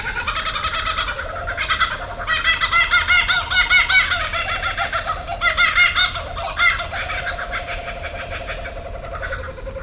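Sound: laughing kookaburra call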